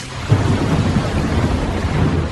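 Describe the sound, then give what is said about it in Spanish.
A thunderstorm from an approaching hurricane, with deep, rolling thunder rumbling under a steady hiss of heavy rain. The storm sounds loud, a continuous wash of noise with no voices. “Escucha que viene un huracán para acá.”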